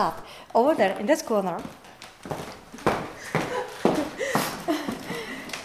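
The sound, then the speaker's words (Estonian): Several hollow knocks on a hollow column clad in Cipollino marble, standing in a corner of a room where a wall once supported the ceiling, a few sharp taps spaced irregularly while a person talks over them. “seda sammast siin oli oluline hoida, sest enne oli siin sein, et lage toetada aga kui me läheme siia nurka, siis kui me koputame, on kuulda, et see sammas on seest tühi, sest teisel pool oli teenija tuba.”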